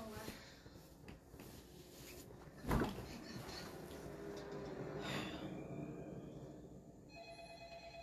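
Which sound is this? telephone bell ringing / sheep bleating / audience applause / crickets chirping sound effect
telephone bell ringing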